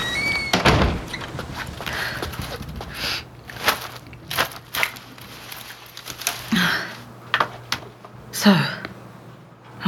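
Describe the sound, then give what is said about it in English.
In a video game, the door of a three-story Victorian house used as an inn on a remote island bangs shut with a heavy thud early on as the rain grows stronger, followed by scattered latch clicks, creaks and shuffling footsteps over a low steady hum. “I should go inside.”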